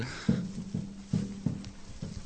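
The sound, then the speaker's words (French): Steady footsteps crunch through dry straw, about six soft rustling steps in an even walking rhythm, with no voices. “Toujours intéressant d'entendre le bruit de la paille”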